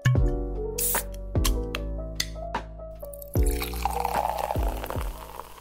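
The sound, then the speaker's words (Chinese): Liquor splashes and pours into a glass with a burbling hiss, broken by a few bright, ringing plinks and drips at uneven intervals. No one speaks. “听见酒的声音。”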